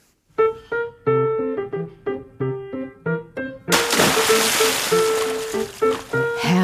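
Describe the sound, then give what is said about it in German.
A bright melodic phrase plays, then a loud splash as someone jumps into the cool water of a tiled outdoor swimming pool, followed by steady churning, bubbling water while the music keeps going over it. “Herrlich, ein Sprung ins kühle Nass des Freibads, ins gekachelte Schwimmbecken, das dem Wasser seine schöne blaue Farbe gibt.”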